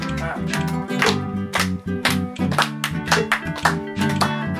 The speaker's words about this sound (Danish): Så klapper vi. Kom. Klapper. Kør bare med.